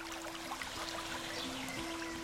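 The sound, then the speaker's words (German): Water flows steadily through a stream channel, led by a small sluice house into the Brunnenbach brook, a continuous rushing and trickling with no pauses. A faint low tonal hum runs underneath, and no one speaks. “Und dieses Schleusenhäuschen war dazu da, dieses Wasser über den Brunnengraben in den heutigen Brunnenbach zu leiten.”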